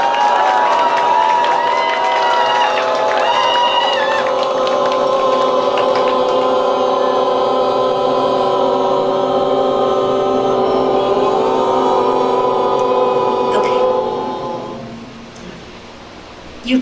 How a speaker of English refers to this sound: people were oming the whole time? Or you just started when I put my hand up? The whole time. Whole time. I couldn't hear you.